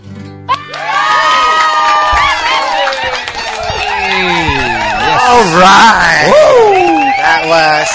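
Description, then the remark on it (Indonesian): A loud audience erupts in cheering and shouting, many high voices overlapping with applause underneath, sustained for several seconds after a sudden start and swelling again toward the end. “Sudah nih tepuk tangan”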